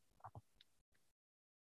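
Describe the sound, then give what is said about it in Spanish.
A phone line crackles with faint static and a few soft blips, cuts out for a split second, returns briefly, then drops abruptly into complete dead silence as the call connection fails. “Sí, se quedó como conectado, desconectado.”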